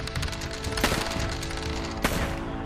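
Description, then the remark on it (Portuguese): Two pistol gunshots ring out about a second apart, fired from two pistols, one in each hand, at a wall; each a sharp, loud crack over a busy, steady background of layered tones and noise, with no talking. “com as duas pistolas uma em cada mão, gritando loucamente: Para de se esconder, diabo! E atirando na parede para ver se ele sai de, de trás dessa parede.”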